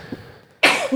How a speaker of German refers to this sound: Gesundheit. Gesundheit.